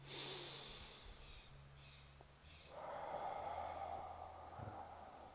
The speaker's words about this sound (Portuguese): Eu vou respirar contigo três vezes para isso surgir.